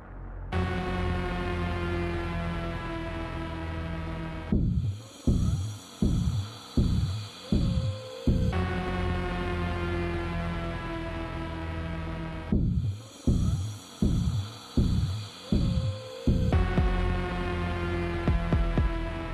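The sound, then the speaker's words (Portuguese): A dark orchestral film score theme alternates a heavy sustained drone with sections of rhythmic pulses of the film director's own recorded breathing, about five sharp inhales and exhales per pass, repeating twice. No one speaks. “essa respiração que a gente escuta no tema do Sato é do próprio Nolan”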